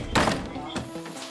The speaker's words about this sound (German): Aus dieser Wohnung kommt der Brandgeruch. Das Vorgehen? Genau wie in der Schule gelernt. Rauchvorhang setzen, Tür aufbrechen,